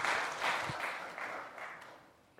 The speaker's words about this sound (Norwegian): Takk skal dere ha. Vi kan gi dem en applaus.